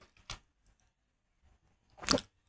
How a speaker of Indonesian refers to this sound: berisik lagi kucing gue